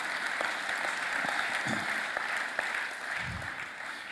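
An audience applauds steadily, a dense wash of clapping that holds at an even level throughout, with a few sharper individual claps standing out and faint low murmurs underneath.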